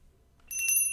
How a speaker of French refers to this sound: Cassie sentit son portable sonner au fond de sa poche. Elle avait oublié qu'elle l'avait récupéré avec les chaussures de Stacy.